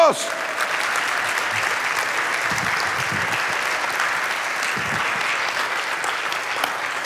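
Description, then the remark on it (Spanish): An audience claps together for God in a steady, dense burst of applause that holds at an even volume for several seconds, with no voices rising above it. “Si tú lo puedes creer, dale un fuerte aplauso a nuestro Dios.”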